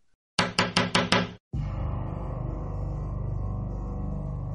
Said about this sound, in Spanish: ese día yo estaba tendiendo mi cama que estaba justo al lado de una de las ventanas y mientras hacía mi cama, escuché un golpe en la ventana.